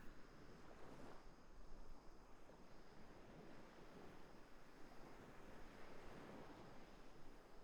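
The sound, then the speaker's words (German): Ocean waves wash steadily onto an empty beach, a soft continuous roar with gentle surges as each wave breaks, with a light breezy hiss and no voices. “Beobachtest vielleicht eine Welle und dann die nächste.”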